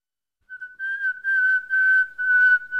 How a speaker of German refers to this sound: Wir pfeifen manchmal unbewusst im Alltag vor uns hin, wir pfeifen aber manchmal auch sehr bewusst, um uns lautstark bemerkbar zu machen.